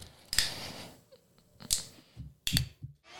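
A glass bottle being opened in a studio: a few sharp, bright clicks and clinks spaced over a few seconds, with quiet handling noise between them and no talking.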